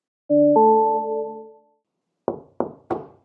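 A two-note electronic chime rings and fades, then a medical student knocks three times on a door in an even rhythm, firm and clear, before entering to begin a patient encounter, with no talking.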